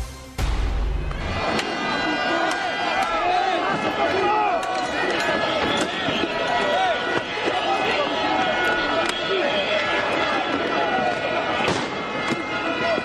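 Clashes in Paris between French police and firefighters protesting for pay raises and better working conditions: a loud, chaotic crowd of shouting voices, punctuated by repeated sharp bangs and thuds, continuous throughout with no calm moment.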